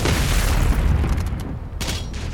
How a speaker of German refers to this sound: Und Oha, da kommt schon die nächste Horde, die explodiert. Okay, warum ja. nicht? Es wummert, es blitzt